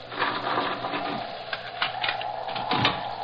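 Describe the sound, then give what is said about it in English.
A door being unbarred: a continuous mechanical rattle and scrape of wood and metal for a few seconds, with a couple of sharper clunks near the end and no voices. “One moment, gentlemen. I'll unbar the door.”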